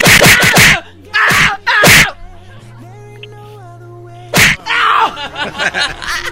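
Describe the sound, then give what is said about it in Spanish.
A run of sharp, explosive sneezes bursts out, several in quick succession and then one more after a pause, over a quiet steady musical drone. “Jesús.”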